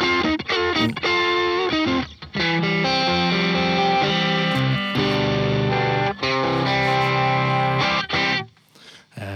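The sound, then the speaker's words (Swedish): A guitar played through an overdrive pedal, thick and saturated, with chugging chords and sustained notes that ring out together for several seconds before cutting off near the end. “Det, det låter som att du har en overdrive och en fast typ parallell, tycker jag.”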